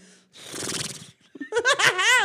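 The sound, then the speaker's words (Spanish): A voice imitates a horse's whinny, loud: a long breathy, rasping exhale followed by a high, quavering, trembling neigh that wobbles up and down before trailing off. “No sabías que podía ser como caballo.”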